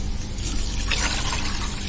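Four cups of water pour steadily into a rice cooker for three cups of rice, a continuous splashing gurgle that brightens briefly midway as the stream shifts; no one speaks.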